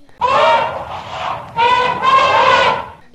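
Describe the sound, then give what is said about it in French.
An elephant trumpets loudly in two long, brassy blasts, the second slightly longer and rising, with no other sounds around it. “et l'éléphant se réveille.”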